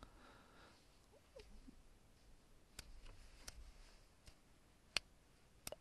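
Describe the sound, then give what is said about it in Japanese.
A handful of sharp, single hand claps tapping out a slow, steady tempo of about 83 BPM, about one every three-quarters of a second, starting after a few quiet seconds with soft background noise and no talking. “今、パチパチ聞こえてたから謎だけど。”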